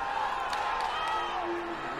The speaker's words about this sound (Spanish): El griterío en el Grand Garden del MGM en Las Vegas.